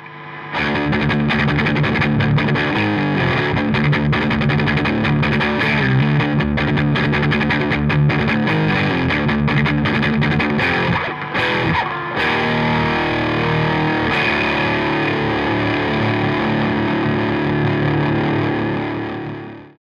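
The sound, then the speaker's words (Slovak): A heavily distorted electric guitar played through a distortion effect plays loud, saturated chords and riffs for about twenty seconds, a thick fuzzy wall of sound that rings out briefly at the end. No one speaks. “Keby sme sa mali baviť o extrémne skresanom zvuku, tak by sme hovorili o distortion.”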